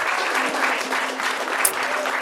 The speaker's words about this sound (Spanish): si la gente supiera que fue que me equivoqué de sample. un aplauso, un aplauso. Ahora sí.